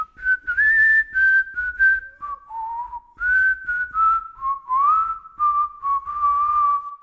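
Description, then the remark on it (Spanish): Someone whistles the lively music of the jarabe largo ranchero folk dance, clear and fairly loud, in short rhythmic phrases with brief pauses between notes and no talking. “Así fue como conoció el jarabe largo ranchero, que aprendió de una pareja formada por un anciano y su nieta, ambos de Tuxpan, quienes además de mostrarle los pasos, le tararearon y silbaron la música.”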